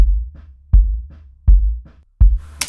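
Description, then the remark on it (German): Deep, boomy bass drum thumps recorded using a loudspeaker as a microphone: four heavy hits at a steady pace with softer low knocks between them, very bass-heavy with little top end, ending in a brief hiss of noise. “Junge, Junge, richtig Wumms unten rum.”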